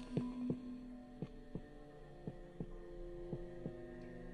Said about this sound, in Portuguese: Por alguns minutos, ainda me contive e permaneci imóvel, mas as batidas tornavam-se cada vez mais fortes e cada vez mais fortes. Achei que o coração ia explodir.